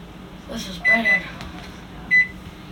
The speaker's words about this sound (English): This fucking microwave just sucks.